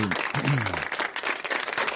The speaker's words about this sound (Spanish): Hay, hay muchas organizaciones que se han dado la tarea de abrir puestos de trabajo y yo le quiero regalar también un aplauso a esa gente,